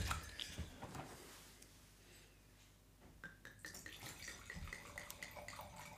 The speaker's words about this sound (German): ich schenke dir jetzt einmal ein. Eh? Ich schaue jetzt weg beim Einschenken.